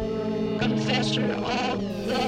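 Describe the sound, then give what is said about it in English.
A sustained singing voice drenched in effects, its tone filtered and wavering with a fast tremolo pulse, giving a bleating, warbling quality throughout the short passage. “And yeah, she runs her voice through uh, filters and tremolo,”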